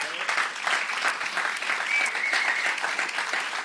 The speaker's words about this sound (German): Und äh, kannst du mal auf die Bühne kommen? Und wir haben einen großen Applaus für ihn.